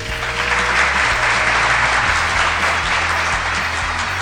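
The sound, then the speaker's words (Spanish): Steady, dense applause sound effect played by the sound technician, a continuous wash of many hands clapping at an even loudness throughout, with a low hum underneath and no voices. “Uy, papi, ¿cómo estás? Con los aplausos.”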